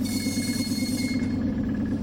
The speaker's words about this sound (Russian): оказался в электричке небезызвестной а Москва-Петушки, которая доставила меня а в мой родной город.